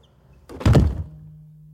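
Heavy chamber doors swing shut with a deep thunk and a brief rumbling tail, locking a person alone inside, leaving only a low, steady hum in the otherwise quiet space.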